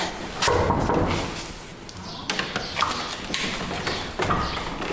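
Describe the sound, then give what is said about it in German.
Several sharp knocks on the door of a visual artist's studio, spaced irregularly across a few seconds, fairly loud against a steady background hum, with no one speaking. “Und jetzt stehen wir vor ihrer Tür und klopfen mal.”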